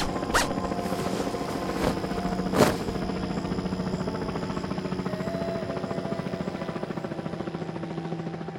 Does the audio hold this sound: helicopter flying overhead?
yes